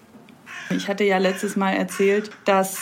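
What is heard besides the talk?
birds in the background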